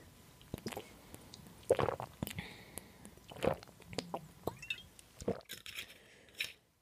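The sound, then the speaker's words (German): Someone takes a sip of a drink, with quiet wet mouth sounds, a few soft gulps and a faint glassy clink, no talking. “Naja, ich trinke jetzt erstmal einen Schluck.”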